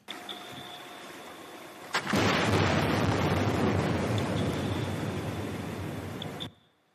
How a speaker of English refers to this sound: Air guns produce loud blasts, sometimes every 10 to 15 seconds for months on end, and they use the reflections of these sounds to map the ground beneath. It can sound like this.